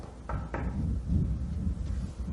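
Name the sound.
knocking on a door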